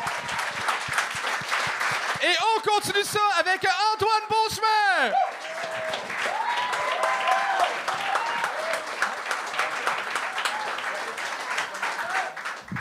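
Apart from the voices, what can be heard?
audience applause and cheering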